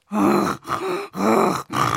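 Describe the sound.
A voice imitates the heavy breathing of a bear with its face in a trash can, first taken for a huge dog: four loud, rasping breaths alternating in and out in a steady rhythm, with no other talk.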